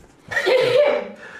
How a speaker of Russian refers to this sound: Будь здоров. Вот видишь, подтверждение.